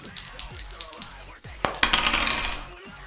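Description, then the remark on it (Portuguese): A die is rolled to decide a yes-or-no answer, even for yes: a run of light, sharp clicks, then a louder bright rattle as it tumbles across a hard surface before settling. Faint low murmuring sits underneath. “Mano, eu vou até rolar um dado, porque eu não sei nem o que responder, tá ligado?”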